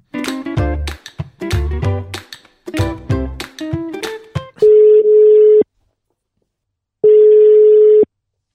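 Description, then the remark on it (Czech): A brief stretch of music gives way to a telephone ringback tone of an outgoing call: two steady, loud one-second beeps of a single pitch, separated by a pause of silence. “My tu každopádně máme další číslo a další hovor.”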